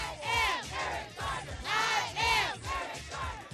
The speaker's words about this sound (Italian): Mani in alto, non sparate, è ancora lo slogan che attraversa tutti gli Stati Uniti in questa protesta